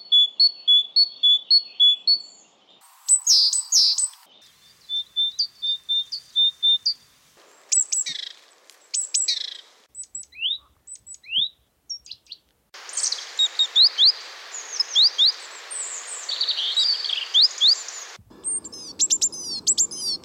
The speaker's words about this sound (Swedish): Här har vi lite exempel på fågelsång hos talgoxar.